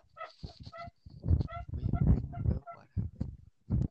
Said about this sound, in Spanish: Para los que no sepan, mi cama y al lado está mi silla a veces, en la que estoy sentado ahorita. ¿Te imaginas que esté jetón, güey, y la silla se empieza a escuchar así en la noche?